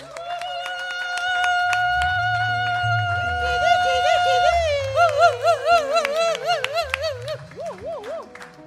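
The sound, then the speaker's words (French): An audience at a Christian worship gathering cheers and applauds to welcome a woman speaker, over sustained musical tones, with scattered claps throughout and wavering high-pitched cries rising toward the end. “Sous vos acclamations, nous accueillons.”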